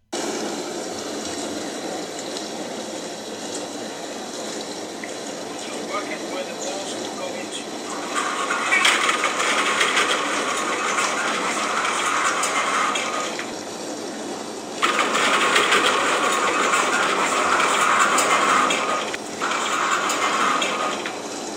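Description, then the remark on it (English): A dishwasher churns through a vigorous wash, thought to be on cycle three, with balls on its top rack, a steady rush of water broken by louder hissing spray bursts that come and go in surges over the second half. “will leave the dishwasher going on in the background. I think it's on cycle three. So it's quite vigorously washing those balls.”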